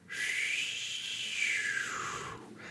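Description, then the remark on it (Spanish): A jet airplane roars overhead in a steady, loud whoosh, its pitch sliding gradually downward as it passes, then cutting off after a few seconds. “Este es el sonido de un avión.”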